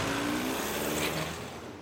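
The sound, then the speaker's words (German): An SUV engine hums steadily, then grows slightly fainter toward the end as the vehicle drives away, with no voices. “Damit stiegen sie und ihr Bruder in ihren edlen SUV und fuhren davon.”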